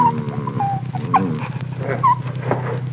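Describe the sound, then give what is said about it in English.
An injured dog whimpers as a doctor examines it, a series of thin, wavering whines and soft cries over a steady low hum, with no one speaking. “I know how you feel about this dog, but I'm afraid he's beyond help.”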